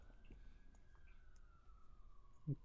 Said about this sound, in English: Ah oh, man. Those sirens in the back